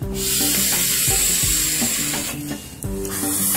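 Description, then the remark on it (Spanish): A forceful, continuous rush of breath as vape vapor is blown aggressively into someone's face in a 'Cloud Chase in the Face' prank, a loud, airy hiss lasting a few seconds with tonal music playing underneath and no talking. “Después va uno a exhalar agresiva, veloz, violenta y desagradablemente el vapor en la cara de la víctima seleccionada y al final gritará Cloud Chase in the Face y vamos a ver qué pasa.”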